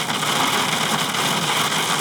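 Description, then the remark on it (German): Heavy rain pours down in a dense, steady hiss, a continuous wash of droplets drumming on a surface with no voices present. “Ich glaube, es hat seit Monaten nicht geregnet.”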